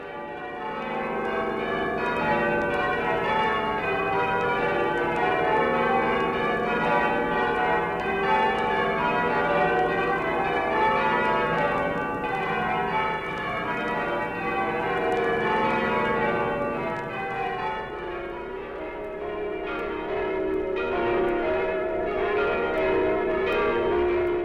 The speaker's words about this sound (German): jenseits des Kanals, in Westminster, hängen die Männer an den schweren Seilen und lassen Klöppel und Glockenwand aneinanderschlagen. Auch sie tun es im Dienste dessen, der seine Wohnungen in allen Landen hat.